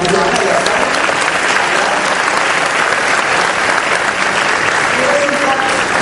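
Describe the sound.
Sustained applause from a crowd, a dense, steady wash of clapping that stays loud and even throughout, with faint voices mixed underneath.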